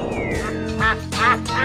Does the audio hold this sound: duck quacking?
yes